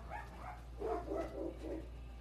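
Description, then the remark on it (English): A small dog of about 15 pounds barks at a dog of about 80 pounds in a quick run of about six high-pitched yaps, moderately quiet, over a steady low background hum with no one talking. “This is awesome because the little guy that's barking right now is probably like 15 pounds soaking wet and he's barking at a dog that's probably 80 pounds.”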